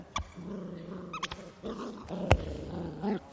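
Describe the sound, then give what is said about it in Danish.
A dog growls in a steady, low rumble for a few seconds, broken by a couple of sharp yips or snaps, with no one talking. “Nu har jeg jo fået en hund.”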